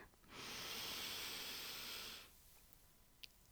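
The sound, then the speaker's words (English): One long, deep breath drawn in, a steady airy rush lasting about two seconds, heard on its own, then near silence with a faint tiny click. “Now, let's take a deep breath together and move on with our day.”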